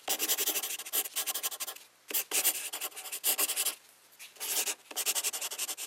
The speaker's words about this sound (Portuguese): E a resposta correta é. Alguém a escrever com uma caneta numa folha de papel.